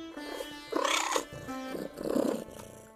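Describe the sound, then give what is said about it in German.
A young white tiger cub with black stripes, called a Ghost Tiger, sitting alone in wild greenery, growls twice in short, raspy bursts, fairly loud, with a soft sustained musical tone lingering underneath. “Ein kleines Tigerjunges mit schwarzen Streifen und leuchtend weißem Fell.”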